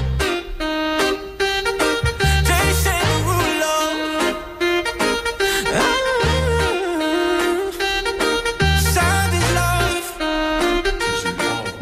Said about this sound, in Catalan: Això que estem sentint és … de …, una de les cançons més irritants de TikTok